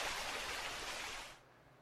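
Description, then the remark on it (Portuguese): A waterfall's steady, hissing roar of rushing water, continuous, then abruptly dropping away to near quiet just before the end. “Isso aqui é a cachoeira, irmão. Você vê que é um pouquinho diferente da outra.”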